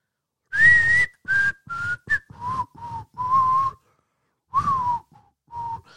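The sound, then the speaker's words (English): Someone whistles a short, bouncy melody, a string of clear notes in phrased bursts with brief pauses, stepping from higher tones down to lower ones, with no talking. “Yeah, I'm not good at whistling, but yeah, you you get you know you know what that song is.”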